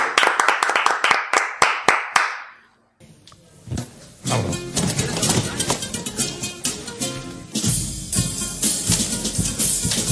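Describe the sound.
A quick run of about eight sharp, rhythmic claps, a brief pause, then loud, dense audience applause that swells and continues, with cheering voices mixed in.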